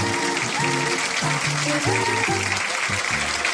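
A brief burst of studio audience applause, a dense steady clatter of clapping that runs the whole few seconds over a tuneful musical bed with sustained pitched notes.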